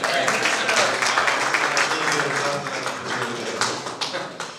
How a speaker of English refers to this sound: Feel free to give a round of applause.